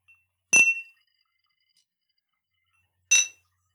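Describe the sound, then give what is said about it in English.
Two bright glass clinks, like drinking glasses touched together in a toast over a Zoom call, sound about two and a half seconds apart, each ringing briefly with a high shimmer in otherwise quiet surroundings. “So uh, allow us to cheers.”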